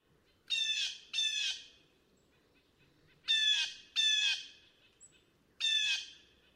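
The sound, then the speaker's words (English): Loud, harsh blue jay calls ring out five times in uneven pairs, each a raspy, descending squawk standing clearly above a quiet, faintly rumbling background, with no talking. “what we heard is the, is the classic call, and the mnemonic to remember is that they say their name, J J J J.”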